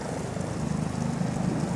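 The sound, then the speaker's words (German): A helicopter passes overhead, its engine and rotor producing a steady, loud droning roar with a low throbbing hum that fills the whole moment without letting up. “abgesehen von dem Helikopter, der uns jetzt wieder ein bisschen akustisch durchschneidet.”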